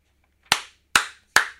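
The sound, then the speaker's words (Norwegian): Three crisp hand claps in a slow, steady rhythm, each a sharp snap with a brief ringing tail, heard alone with no talking. “Ja, det er veldig kjekt at du klapper.”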